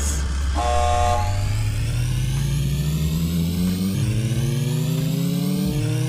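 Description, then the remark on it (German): A loud engine revs and accelerates continuously, its pitch climbing steadily with a gear-shift dip partway through, while a brief horn-like toot sounds near the start; no one speaks. “Wähle ein Fahrzeug. Der Blackbird Rennwagen. Der, der, der, der, der Thunderbolt Gangschaltung, Automatik. Startet die Motoren.”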